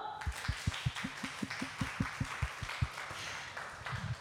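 A quick run of about a dozen sharp hand claps in a steady rhythm, close and fairly loud, with a faint busy background but no talking.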